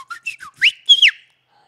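A piercing microphone feedback whistle: three quick high squeaks, then two longer, louder tones that rise and fall in pitch before cutting out. No one speaks.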